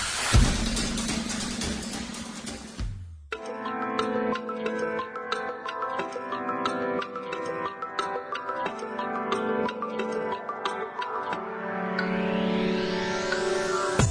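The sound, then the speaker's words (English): A car engine roars loudly for about three seconds, then cuts away as upbeat music with a steady beat takes over and plays through to the end. “So there I am in my car listen to shitty music?”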